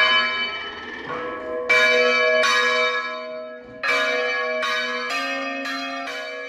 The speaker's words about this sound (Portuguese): O badalar dos sinos.